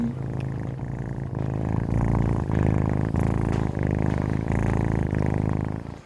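A cat named Windows purrs loudly for several seconds, a steady, rumbling vibration with a gentle rhythmic pulse, with no voices or other sounds.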